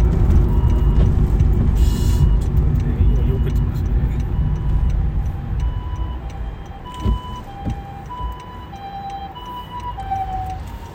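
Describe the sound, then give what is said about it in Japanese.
An ambulance siren wails over steady road and engine rumble inside a moving car, its tone sweeping as the ambulance closes in from behind and the driver moves to pull over onto the road shoulder; a man talks intermittently. “今ちょっと救急車後ろから来たんでどっかで僕避けんといけないんですけどね車みたいなの後ろから来たからあこの辺で避けようかな、”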